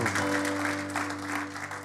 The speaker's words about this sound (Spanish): ¿Cuántos dicen amén? Dale ese aplauso fuerte a Cristo.